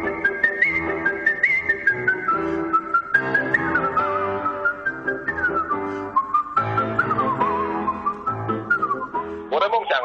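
A bright, high-pitched whistled melody glides and trills through a sustained tune over a soft instrumental accompaniment, with quick ornamental flourishes near the end.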